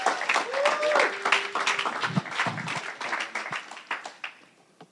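A crowd claps in a dense, steady burst of applause with some voices mixed in, then the clapping thins out and fades over the last second.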